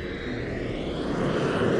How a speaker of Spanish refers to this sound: Sentíamos sonidos, sentíamos sonidos de, tren, sentíamos aviones que pasaban cerca